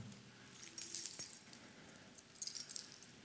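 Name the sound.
bunch of keys jangling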